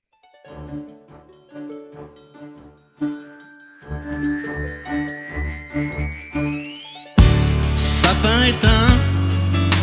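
A song intro with bright, tinkling bell-like notes over a steady pulsing rhythm, a slow rising sweep building up, then the full band bursting in loudly near the end.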